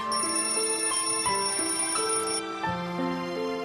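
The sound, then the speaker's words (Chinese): An alarm clock rings with a bright electronic melody, stepping through a string of clear notes that rise and fall in a steady rhythm, loud and alone with no voices. “第二天，小闹钟睡得正香，突然一阵叮铃铃的铃声。把他惊醒了。”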